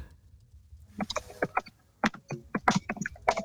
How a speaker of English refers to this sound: I'm typing to him. We can hear you typing. I can hear you typing.